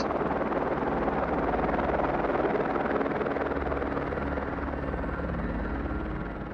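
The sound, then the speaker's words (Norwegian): A helicopter's rotor and engine roar steadily and loudly as an injured patient is carried aboard on a stretcher to be flown to the nearest hospital, a dense continuous drone with a low throbbing beat, easing slightly toward the end. No voices are heard. “og han blir lagt på båre og frakta til helikopteret.”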